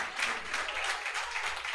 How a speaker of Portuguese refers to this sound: Aplauda o Senhor. Aleluia.